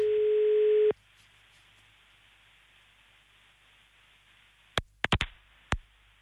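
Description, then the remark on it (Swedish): A phone line gives one steady ringing tone lasting about a second, then quiet line hiss, followed by a few sharp clicks as the call connects. The call is being placed to one of the contest entrants. “nu ringer vi alltså en av alla de som har varit med och tävlat om att få följa med.”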